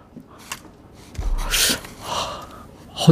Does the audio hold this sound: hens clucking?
no